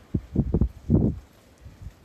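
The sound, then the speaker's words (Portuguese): Wind gusts buffet the microphone outdoors in a few low, rumbling bursts, with a faint rustle of leaves between them. The gusts come close together at first, then fade to softer puffs. “Aqui está ventando, contato com a natureza.”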